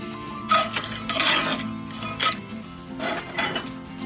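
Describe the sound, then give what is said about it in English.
A knife roughly chops candied pineapple for a pie topping on a cutting board, giving off a run of irregular knocks and clattering taps, some bunched together, with no talking. “I'm using some candied pineapples. Of course, because I use pineapples in the pie filling. Giving it a rough chop.”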